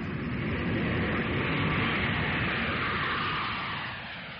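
train moving on rails

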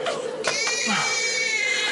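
baby crying

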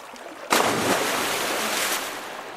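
sea waves

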